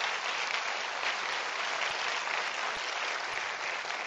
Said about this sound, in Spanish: Un aplauso para mi monita, por favor. Gracias.